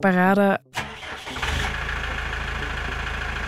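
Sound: tractor engine starting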